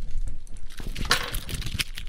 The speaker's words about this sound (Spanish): Tengan aquí, así, mira. Saqué las llaves.